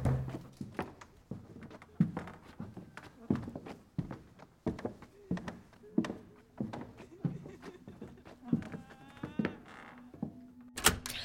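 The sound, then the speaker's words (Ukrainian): Someone pounds on a door over and over, with heavy thuds landing in a steady, insistent rhythm from start to finish. A voice calls out faintly near the end. “Його збудив чийсь настирливий гуркіт по дверях, а також клич.”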